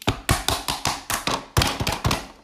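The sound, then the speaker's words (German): An ice cube tray is banged repeatedly against a hard surface to get stuck ice cubes out, about ten sharp, loud knocks in an uneven rhythm, with a brief pause partway through and no talking. “diese Eiswürfel kommen, kommt einfach nichts raus.”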